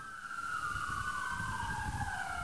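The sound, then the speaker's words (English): Loud emergency vehicle sirens wail steadily, their pitch sliding slowly downward over a low rumbling engine noise, with no voices audible. “the chief of police here, Stacey Graves, but she's being drowned out by the sirens”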